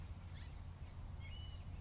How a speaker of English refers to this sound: you can hear the birds chirping